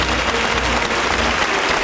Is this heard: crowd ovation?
yes